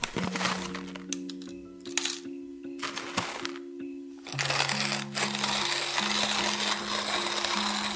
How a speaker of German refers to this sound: Ein Klang, der nahezu verloren in der Geschichte ist, ist für mich das knirschende Malen einer Handkaffeemühle. Dieses Geräusch ist für mich untrennbar mit dem Bild meiner Oma verbunden.